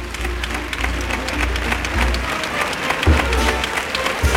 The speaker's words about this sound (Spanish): Cartel de no hay billetes, 6.706 personas en la Real Maestranza al 60% del aforo. Y el público que ovaciona a los toreros.